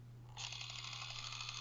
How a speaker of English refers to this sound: That's the sound of the very very slow zoom and why. These are good mechanical sounds going on.